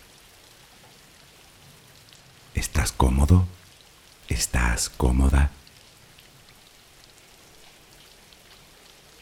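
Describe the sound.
Steady, soft rain falls throughout as a continuous hiss, serving as background for a Spanish guided relaxation for sleep, while a calm voice speaks two short, gentle questions in the middle.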